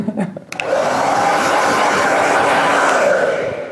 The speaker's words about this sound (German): Für mich ist zum Beispiel auch das Schönste das Föhnen, muss ich ehrlich sagen. Ich finde das viel schöner als Haare waschen. Aha. Die warme Luft, wenn die Haare da, die Finger so durch die Haare gleiten.